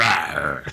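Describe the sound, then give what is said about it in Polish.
A voice imitates a lion's roar sound effect from a film scene: one short, loud, throaty growl, rough and gravelly, lasting under a second and fading out at the end. “tam był dźwięk ryk lwa kiedy on się rzucał z fotela nią”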